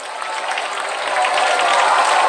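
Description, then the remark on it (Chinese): An audience at Lu Junhong's World Buddhist Friends meeting applauding steadily, a dense wash of many hands clapping at once that holds loud and even throughout, swelling slightly toward the end, with no voices standing out. “让我们再次以最热烈的掌声，感恩大慈大悲的观世音菩萨，感恩大慈大悲的卢军宏台长。”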